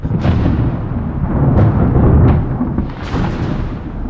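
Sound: thunder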